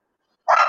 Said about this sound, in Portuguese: Se vocês estão ouvindo os cachorros latindo, é porque eu estou em casa, né?